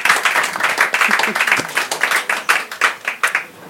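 An audience applauds, a dense patter of many hands clapping at once. The sound is fairly loud and close, thinning into more distinct individual claps toward the end.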